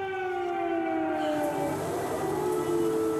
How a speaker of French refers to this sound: À Kiev, la capitale, et dans les grandes villes, les sirènes d'urgence.